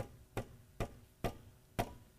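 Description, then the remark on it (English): Four sharp hammer strikes on a nail, evenly spaced about half a second apart, each a bright percussive crack with a short ring, heard alone with no talking, as something is nailed to a cross. “So they're going to take a nail, and they can take a hammer.”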